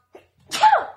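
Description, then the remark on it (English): A single loud sneeze: a short intake of breath followed by a sharp, explosive burst that trails off quickly, with no talking over it. “well, bless you.”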